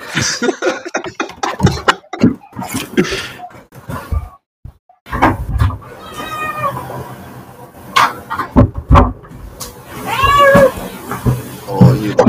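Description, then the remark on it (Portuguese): A cat meows repeatedly, drawn-out insistent cries between about 5 and 11 seconds, wanting to be let in through a door, with brief human sounds and shuffling noise earlier and no clear speech. “Na conta você vai abrir, porque agora, agora quer entrar.”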